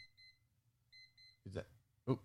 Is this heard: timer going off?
yes